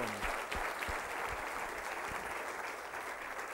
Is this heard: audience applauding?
yes